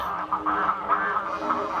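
A flock of greylag geese on a patch of sand calling together, a steady overlapping stream of nasal honks and cackles that continues throughout, moderately loud, with no voices.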